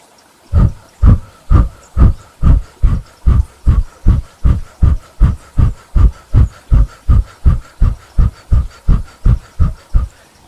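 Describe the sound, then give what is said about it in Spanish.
Forceful, rapid breathing in and out through a mouth shaped like an O, the pranayama exercise called cannon breath (respiración de cañón), about two loud, huffing breaths per second in a steady, even rhythm, with no talking. “Este pranayama se llama respiración de cañón, que consiste en poner la boca en forma de O y por la boca vamos a empezar una respiración poderosa. Siempre por la boca, inhalando y exhalando.”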